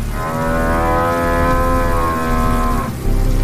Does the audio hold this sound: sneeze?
no